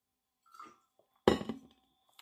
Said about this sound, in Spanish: Entonces, familia, voy a darle un traguito al agua que tengo aquí. Hoy, hoy llevo agua o no llevo té.